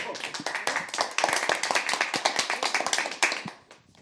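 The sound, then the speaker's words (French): Hands clap in a quick, uneven burst to welcome a newly arrived listener, several people joining in with sharp, crackling claps that fade out toward the end. No one speaks. “Alors déjà, on peut l'applaudir parce qu'il nous a trouvé.”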